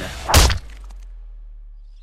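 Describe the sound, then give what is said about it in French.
A single heavy blow from an enormous hammer lands with a deep thud and a sharp crack, followed by a short fading rumble and then near silence. “Le moine tient un énorme marteau numéroteur à la main. Il hurle. Le gajole ou garule Et abat sa masse sur mon crâne.”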